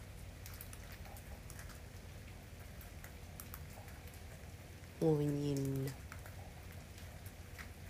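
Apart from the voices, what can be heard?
rain falling at night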